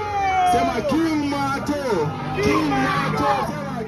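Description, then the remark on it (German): A crowd at an election campaign rally in Kibera, Nairobi's largest slum, on a Saturday in mid-July makes a steady, loud roar of voices, cheering candidate Martin Kivuva on a carriage, with rising and falling shouts and whoops weaving through the continuous babble. “Und die Leute, die jubeln einem Mann zu.”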